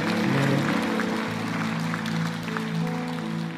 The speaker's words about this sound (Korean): 주님 앞에 영광과 경배의 박수를 우리 올려드리며 나아가길 원합니다. 아멘.